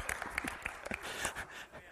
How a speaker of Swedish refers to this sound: Ja, det är värt en applåd.